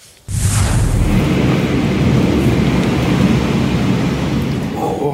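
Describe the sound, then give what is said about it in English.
A massive thunderstorm in Red Cliff, southern Alberta, about 280 kilometers southeast of Calgary, around 1:30 on a Monday afternoon, roars in abruptly, with a deep continuous rumble of thunder layered over steady loud rain, sustained for the whole stretch. “And take a look at this early glimpse of a massive storm that ripped through part of southern Alberta Monday afternoon.”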